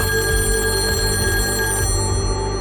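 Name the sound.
telephone ringing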